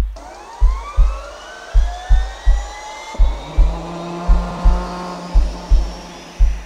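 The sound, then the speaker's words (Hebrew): A synthesized engine sound effect from a film sound-effects library: a drone whose pitch slowly sweeps upward like revving, layered over steady, evenly spaced low thumps; electronic and fairly loud, with no voices. “לפעימות לב, רוח, מנוע,”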